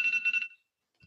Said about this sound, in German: Das sind, ist natürlich unser Timer für die einzelnen äh, Sequenzen, die wir uns ausgedacht haben.